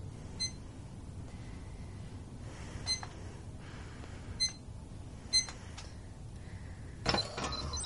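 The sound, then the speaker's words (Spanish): A woman types the code into a safe keypad: four short, high electronic beeps at uneven intervals over a low hum, followed by a brief louder mechanical clack at the end. “Ella teclea el código en la caja fuerte.”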